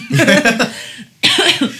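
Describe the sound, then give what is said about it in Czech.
Two loud coughs from a woman, the first a longer, rough, drawn-out hack and the second a sharper burst after a brief pause, with no talking. “tady … nenápadně uh, kašláním poukazuje na epizodu”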